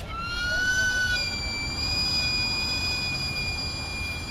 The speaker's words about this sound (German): Das durchdringende Pfeifen, wenn der Verkäufer den heißen Dampf aus seinem Wägelchen entweichen lässt, ist ein akustisches Werbesignal für Camotes, butterweiche Süßkartoffeln, ein billiger und nahrhafter Snack.